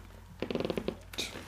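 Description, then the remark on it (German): A chair creaks in a quick run of short, rasping pulses, moderately loud, followed by a brief higher-pitched squeak as it settles. “Das ist mein Stuhl gerade, falls ihr es gehört habt.”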